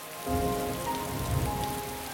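Steady rain pattering on a hard surface, a dense continuous hiss with scattered drops, fairly close and moderately loud, with no voices present.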